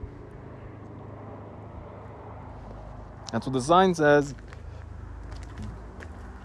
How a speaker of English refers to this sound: You heard them. You heard the motorcycles though. So, sign saying one thing, your eyes and ears are telling you another.